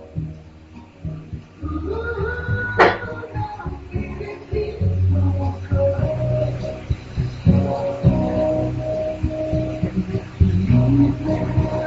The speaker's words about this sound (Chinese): 大家可以听听那个贝斯的声音。